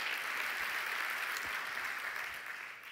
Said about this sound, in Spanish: Por eso le estamos diciendo a cada uno de ustedes, hermanos, vengan a celebrar, los que llegaron temprano hoy a celebrar se merecen un aplauso, un aplauso a los que llegaron temprano. Estuvieron desde el comienzo.